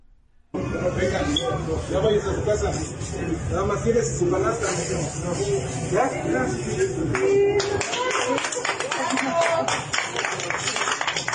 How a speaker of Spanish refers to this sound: En el video que muestra los elementos de Texcoco, quienes pagan el comerciante por toda la mercancía que después empiezan a repartir entre las personas presentes, quienes aplaudieron la acción.